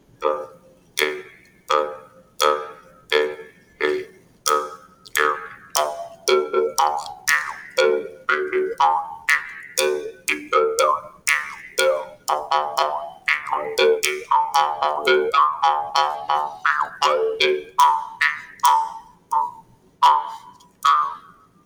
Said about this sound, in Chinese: 那我们的口簧琴呢，它是一一整片竹片出来，那不要小看了这个乐器哦。所以说它的它发出来的声音呢，是咚咚咚咚咚的。我先吹奏一段好了，让大家听听看它的声音是什么。